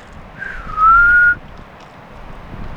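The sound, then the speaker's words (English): A person whistles a single clear, drawn-out note that slurs slightly downward then rises, imitating a black-bellied plover's call to whistle the birds in, loud against a steady rush of wind noise. “Sometimes you can whistle them in.”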